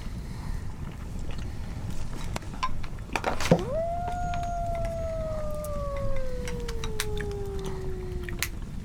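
A lone wolf howl swoops up sharply, then holds and slowly sinks for several seconds over a steady, rumbling outdoor background with wind-like noise. No one speaks.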